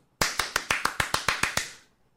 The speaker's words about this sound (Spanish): Otro aplauso.